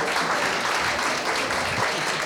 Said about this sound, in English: Uh, and on that point, yeah, yes, yes, clap